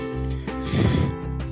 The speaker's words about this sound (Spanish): Ok, esta es la prueba del micrófono del Realme C3. Soplo al micrófono de la cámara. Esa es la cámara de selfie. Soplo al micrófono de la cámara principal.